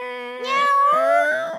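A single drawn-out cat meow, loud and close, its pitch rising and then sliding down over about a second and a half, with no talking around it.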